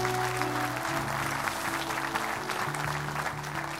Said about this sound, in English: That hand, that hand, that hand, God bless. Give them a great big clap offering. Amen.